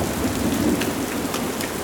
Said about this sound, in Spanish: Dese prisa o moriremos bajo este diluvio.